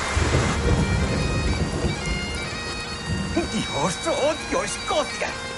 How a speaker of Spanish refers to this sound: Varias gotas de agua caen sobre su elegante taza de té. Llueve torrencialmente.